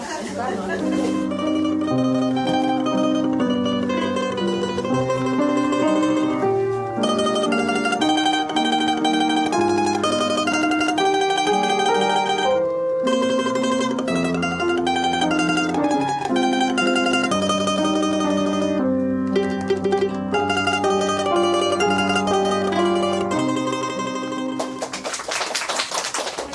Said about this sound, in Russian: на сцене учащиеся школы искусств номер 9. Звучит «Домра».